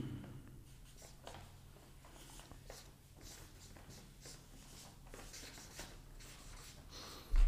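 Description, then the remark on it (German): A pen scratches steadily across small slips of paper as votes are written, with short repeated strokes and brief pauses, fairly quiet, with no voices. “Ja, wir hatten, ich habe die Dicken nicht gefunden. Papierzettelchen.”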